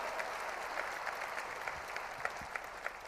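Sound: audience applause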